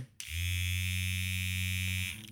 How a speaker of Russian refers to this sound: по сути, это вибратор, но он не выглядит как классический вибратор